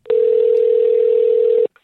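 A steady, unbroken telephone tone of an outgoing call to a store that sells video games hums at one low-mid pitch for about a second and a half, then cuts off abruptly, followed by a brief faint rustle.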